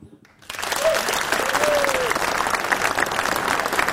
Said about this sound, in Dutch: Dit applaus is voor jullie.